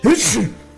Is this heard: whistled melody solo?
no